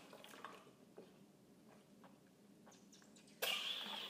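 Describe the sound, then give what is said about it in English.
Someone takes a small sip of water, with soft wet mouth clicks and a swallow, followed by a brief louder rustle or clunk near the end. “Sorry, my throat is getting like right, I'm gonna like give me one second, I just need to take I need to take a small sip of water.”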